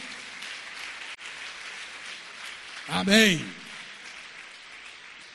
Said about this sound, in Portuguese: Vamos aplaudir o Senhor. Bem forte, bem forte.